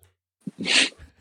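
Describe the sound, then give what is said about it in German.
A single sharp, fairly loud sneeze, with a quick breath drawn in just before it and a brief soft exhale trailing off afterward. No talking. “Gesundheit.”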